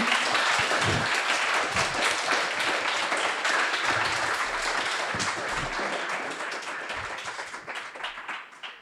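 Sustained audience applause at the end of a conference talk at Les Estivales de la question animale, a dense wash of many hands clapping steadily for about nine seconds, fairly loud throughout and tapering slightly toward the end, with no one speaking over it.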